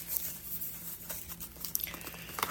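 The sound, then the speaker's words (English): Crinkling and tearing of stiff plastic packaging as a 128 GB SD memory card is opened, with irregular sharp crackles and rustles over a couple of seconds, fairly quiet and with no talking. “I got a 128 gig card for this thing.”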